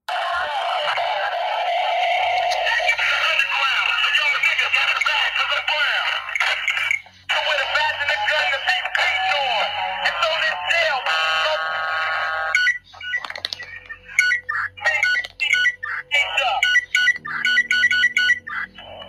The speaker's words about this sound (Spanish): Bueno, ahí no se escucha muy claro, pero básicamente cuando escuchan el tinin, tinin, tinin, es los policías tratando como de comunicarse, apretando los botones de sus radios para seguir comunicándose, pero obviamente no pueden porque está la canción